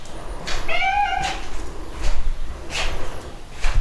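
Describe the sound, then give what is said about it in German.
A single drawn-out meow from a cat expecting food at about 4:30 in the morning rises and falls near the start, followed by soft rustling and muffled household noises, with no one speaking. “Noch haben die Katzen nicht reagiert. Aber ich glaube, irgendwann reagieren sie.”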